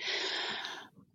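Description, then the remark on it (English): A dog lets out a single harsh, raspy cough, a breathy wheezing burst under a second long that trails off into quieter snuffling, heard somewhat in the background with no one talking. “Sorry, that's the dog coughing in the background.”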